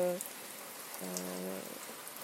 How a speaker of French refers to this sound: Sauf que là, bah, il pleut. Donc je suis devant la maison. J'attends que la pluie cesse pour essayer d'aller euh, faire ma petite marche.